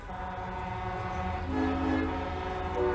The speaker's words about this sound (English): there are cars lining the so, the road, the street there, and everybody's honking. Two miles to make it to the Capitol.